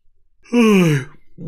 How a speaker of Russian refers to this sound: Вы не думайте, я вот сейчас зеваю, не знаю почему.